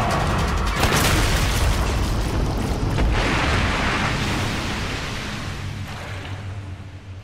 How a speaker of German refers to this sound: Das Krokodil verbiss sich darin. Ein Schuss mit der Schrotflinte.